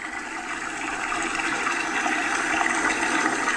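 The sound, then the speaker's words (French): Water pours steadily into a bathtub, a continuous rushing hiss that holds at an even, fairly loud level from start to finish, with no voices. “ce n'est pas une ben toilette, mais t'es dans la bonne pièce.”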